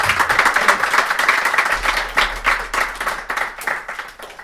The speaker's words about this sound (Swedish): Vill ja, eh, vi, kan, vi kan dra en applåd.